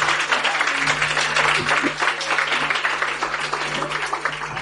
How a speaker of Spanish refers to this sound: Ahí lo tienes. Aplauso, aplauso. Gracias.